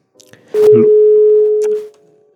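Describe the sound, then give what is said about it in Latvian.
A single steady telephone line tone from a call coming in to a radio program, mid-pitched and fairly loud, holds for about a second and a half, preceded by a few soft clicks and rustles, with no voices. “Nu, e, raidījums tuvojas beigām, vēl ir vien, viens zvans, uz kuru tad arī atbildēsim.”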